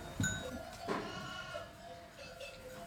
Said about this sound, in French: et on parle de sonailles quand on parle de brebis. Donc c'est pour ça, en sonnaillé, c'est-à-dire qu'elles ont des sonailles.